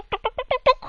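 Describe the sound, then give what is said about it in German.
A voice imitates a thrush calling outdoors with six quick, evenly spaced chirping notes, fairly loud, followed by a brief soft rustle at the end. “Darüber weg hörst du eine Drossel, die da draußen”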